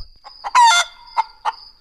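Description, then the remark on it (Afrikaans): Hens cackle and cluck: a loud, harsh squawking burst followed by a few short, separate clucks spaced out over the next second, with no one talking. “Wanneer hulle haar sien aankom, kekkel en kla hulle dat dit klap.”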